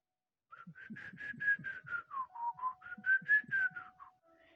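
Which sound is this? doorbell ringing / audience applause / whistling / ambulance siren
whistling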